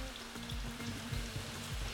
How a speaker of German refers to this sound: Wenn das Öl heiß ist, kann man anschließend die Kartoffeln dazugeben. Bevor die Kartoffeln goldbraun werden, muss man noch die Zwiebeln hinzufügen und alles zusammen anbraten lassen.